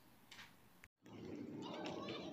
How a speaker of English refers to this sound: All right, if you're listening to this and the uh, quality seems kind of suspect or you hear yelling in the background, that is my kids playing. Uh, I'm recording this uh, while we're down here riding bikes. Well, they're riding bikes,